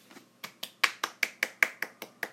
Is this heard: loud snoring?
no